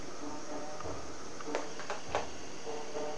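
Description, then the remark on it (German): A few faint drum hits as someone drums outside, irregular thumps and sharper knocks spread across a few seconds against a quiet background. “Bei mir trommelt gerade jemand draußen.”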